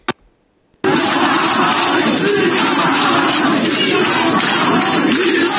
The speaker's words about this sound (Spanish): Miren ustedes acá el pueblo cubano pidiendo libertad. esto fue un audio que grabamos ayer. Miren ustedes, escuchen esto.